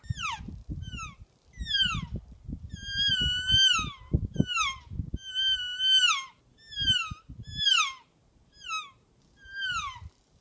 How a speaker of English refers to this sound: Real game calls featuring the elk reel.